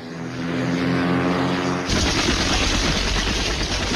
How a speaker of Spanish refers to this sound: Los jets llegarán en unos 30 segundos. Alerte a sus hombres allá abajo. Esta será una gran explosión.